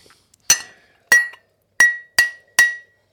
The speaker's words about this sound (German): eine Tasse, die ich für dich erheben kann. Ich kann die auch anstoßen an so ein Glas, das ich noch hier liegen habe. Das habe ich gerade gemacht.